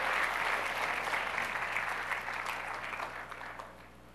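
Sustained audience applause for children with perfect attendance, a dense steady clatter of many hands clapping at once, holding strong for a few seconds before gradually thinning and fading toward the end.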